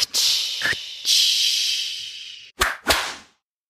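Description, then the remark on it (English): A long lunge whip, flicked by the wrist while lunging a horse around, swishes through the air with a hissing whoosh, followed by two sharp, loud cracks in quick succession, with no talking. “when I'm at my prime and I'm getting that horse going around and I can just with the, with the simple flick of my wrist and I get that whip crack, I feel like the master of the universe.”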